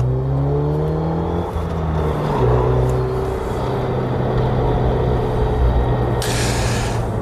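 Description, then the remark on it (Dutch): A Megane Trophy R hot hatch's engine revs and pulls hard through the gears on a lap, a steady loud drone with shifting pitch, joined near the end by a brief hissing rush of air or spray. No one speaks. “Heb je wel een auto die ja, sociale isolatie tot iets aangenaams maakt. Ga nog even een rondje.”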